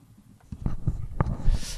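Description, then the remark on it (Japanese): Fumbling handling noises as a condenser microphone is unplugged and swapped for a cheap dynamic microphone: a quiet start, then a run of soft thumps, knocks and scraping rustles, with no one speaking. “ダイナミックマイク、安物のダイナミックマイクに交換してみますね。”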